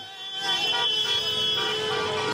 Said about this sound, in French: Sur les Champs-Élysées, encadrés par un important dispositif de sécurité, les supporters auront donné de la voix jusqu'à tard dans la soirée sans incident majeur, à grand renfort de drapeaux et de klaxons.